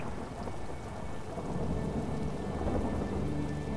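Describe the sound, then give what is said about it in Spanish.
Steady, heavy rain pours down while a deep, low rumble of thunder rolls underneath, building slightly louder toward the end, with no voices present. “En el reino de la naturaleza, cada tormenta es necesaria, es perfecta.”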